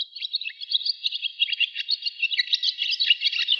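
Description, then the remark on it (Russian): A barn swallow's rapid, pleasant twittering song, a continuous stream of quick high chirps and warbles, clear, with no other sounds. “У ласточки это приятное торопливое щебетание,”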